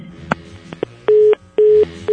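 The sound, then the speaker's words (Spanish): Telephone touch tones as a phone number is dialed again: a few soft clicks, then two loud, steady mid-pitched beeps, each about a quarter second long with a short gap between. No one speaks. “No, yo tengo que marcar otra vez.”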